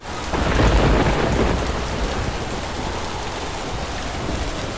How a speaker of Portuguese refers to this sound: Na tarde daquele dia terrível, a embarcação dos caçadores retornava para a vila quando uma forte tempestade se formou.